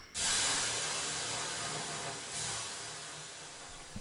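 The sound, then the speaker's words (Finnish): Water splashed onto hot sauna stones bursts into a loud, sustained hiss of steam that swells again briefly midway, then slowly tapers off. No one speaks. “Pitäisikö me ottaa vähän löylyä ja mennä seuraavaan aiheeseen?”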